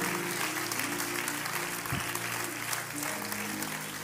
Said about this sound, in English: Clap your hands to the Lord just because God is good.